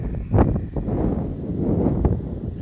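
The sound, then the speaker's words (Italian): A gust of wind buffets the microphone, producing a loud, low rumbling roar with a sharper burst near the start and another toward the end. “Scusate, eh, raffica.”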